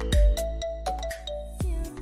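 A text message notification chime for a self-health-monitoring message from the New Taipei education bureau, on its own: a quick series of bright melodic beeps with steady ringing tones that repeat across two seconds.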